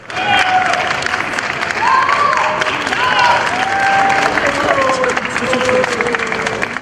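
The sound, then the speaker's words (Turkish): Steady, dense applause from a crowd welcoming a young sailor, a world youth champion, back to Turkey, many hands clapping continuously with scattered cheers and voices rising above it throughout. “Dünya şampiyonu genç yelkenci yurda alkışlarla döndü.”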